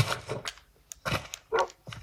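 A dog barks several times in quick, uneven succession, four sharp barks with brief pauses between them and no one talking.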